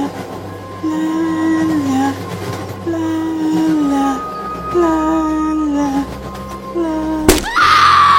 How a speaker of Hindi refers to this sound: अचानक वो लड़की एक पोल से टकरा कर ट्रेन के अंदर गिर पड़ी अभय उसकी चीख सुनकर डर जाता है